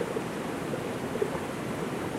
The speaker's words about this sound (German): wir haben einfach unsere Kleider auf einen Baumstamm gelegt und können jetzt im warmen Wasser planschen.